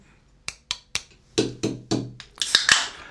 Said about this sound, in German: Übrigens, drei, drei Klopfertechnik ist bei Dosen eigentlich essentiell.